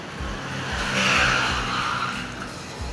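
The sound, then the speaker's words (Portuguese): A motorcycle roars past outside in front, its engine swelling to a peak midway and then fading, with a rough, throaty, popping exhaust note and no talking. “Agora a moto deve ter e parece que os caras passam aqui na frente, cara. E, e aí eles resolvem ficar estourando escapamento para foder com uma, o meu programa.”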